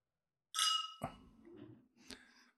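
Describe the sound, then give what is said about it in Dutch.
Wine glasses clink together in a bright, ringing toast to a good year that quickly fades, followed by a couple of softer knocks and faint clatter. “Proost jongen, eh, op, een, op een mooi jaar.”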